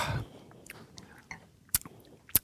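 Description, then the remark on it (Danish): Someone chewing food, with soft wet mouth clicks and a couple of sharp crunchy bites near the end, quiet overall and with no one talking. “Og jeg må gerne sidde og spise Du skal, du skal spise”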